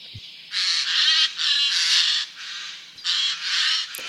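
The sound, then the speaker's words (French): A Eurasian jay gives a series of harsh, rasping screeches in woods, about five loud grating bursts in quick succession, with no voices. “Son cri rauque et sonore retentit dans les bois,”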